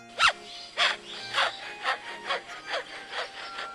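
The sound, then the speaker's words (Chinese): An Australian lyrebird mimics a handsaw cutting wood: about eight steady, evenly spaced rasping strokes with a faint whistly tone running underneath, heard alone without any talking. “你听，就是青鸟钉钉子，青鸟用电钻钻洞，青鸟用锯子锯木头。”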